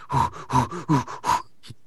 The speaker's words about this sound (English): Congratulations, you've just hyperventilated. Congratulations, yeah. that's panting. That's all that happened. Yeah. also, it's, it's techno panting.